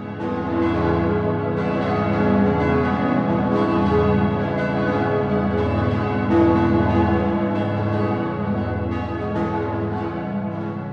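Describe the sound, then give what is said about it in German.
Several church bells peal together in a loud, continuous wash of overlapping strikes, their tones ringing and sustaining without a break, with no voices present. “Große Stimmen im bayerischen Glockenhimmel.”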